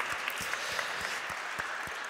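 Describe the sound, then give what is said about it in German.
An audience applauds steadily for a young trainee preacher called onto the stage, a dense wash of clapping hands with a few sharper individual claps standing out at an even pace, moderately loud and with no voices over it. “Einen dicken Applaus für Nachwuchspredigerin.”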